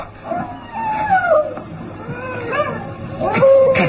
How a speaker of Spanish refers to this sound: ¿Qué fue eso? Un aullido.